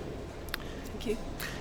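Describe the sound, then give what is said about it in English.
A steady, indistinct murmur of many people chatting at the 2018 ABA Rare Book Fair in Battersea, London, where books are being sold, with a couple of brief light knocks rising above the low background babble. “You can hear the murmur of gentle book selling in the background.”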